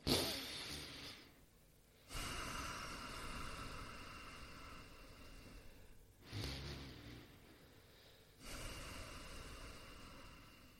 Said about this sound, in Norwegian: Så hvis jeg skulle vist det nå, så trekker jeg da pusten inn gjennom nesa, sånn.